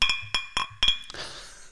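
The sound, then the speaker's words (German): Glass clinks together four times in quick succession as a person drinking a non-alcoholic BRLO Naked beer toasts with themselves over a video call, bright with a short ringing tone, followed by a brief soft rustling hiss. No one speaks. “Warte, ich brust mit mir mal selbst zu.”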